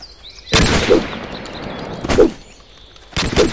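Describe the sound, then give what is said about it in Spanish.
Video game gunfire from enemies as the player dodges their bullets: three loud, sharp shots fired at uneven intervals about a second apart, each leaving a brief rumbling tail, with faint high chirps in the background. “Y saltando balas, o sea, saltando, perdón, esquivo las balas de los enemigos.”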